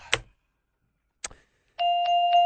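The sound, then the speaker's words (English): Two sharp, isolated clicks are followed by a loud, steady doorbell-style chime that rings continuously with three quick repeated strikes, close and clear with no voices. “Sweetness bell. You and your stupid sweetness bell.”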